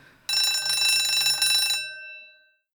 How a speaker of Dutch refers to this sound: Ja, daar eh, gaat weer het geluid van de bel. Ehm, dat betekent dat we weer eens de netten gaan ophalen.